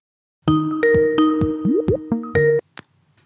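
An outgoing phone call's ringing tone plays as a quick run of bright electronic notes over about two seconds, clear, ending with a single faint high blip and no voices.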